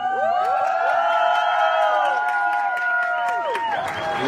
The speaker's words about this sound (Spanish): y déjenme contarles algo que me da un poquito de risa. Esta es la primera vez. Están que me aplauden por no haber hecho nada.